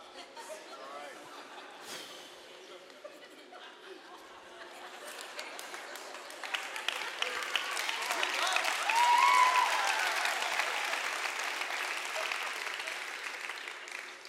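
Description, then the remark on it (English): A church audience applauds the preacher at the close of a sermon, the clapping swelling from a modest patter into a fuller, louder ovation that holds for several seconds before easing slightly, with faint voices mixed in. “Hey, uh, team in the back, you hear them clapping?”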